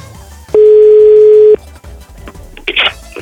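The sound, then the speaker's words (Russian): A steady telephone tone sounds loud for about a second, followed after a short gap by a brief burst of higher, brighter beeping tones, as someone places a phone call. “Нет, я хочу просто попробовать позвонить по телефону, похожему на телефон нашего генерального продюсера.”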